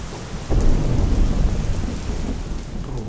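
A deep thunder rumble rolls in abruptly and lingers, low and heavy, over a steady hiss of falling rain. No one speaks.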